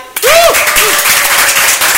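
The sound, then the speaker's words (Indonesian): Loud, dense applause breaks out suddenly as the host closes the show and continues steadily as a crowd claps, with a brief whoop or cheer rising early on. “teman-teman ya dan sampai bertemu lagi deh di lain kesempatan ya yeah, tepuk tangan ya di kesempatan tripod selanjutnya bye bye”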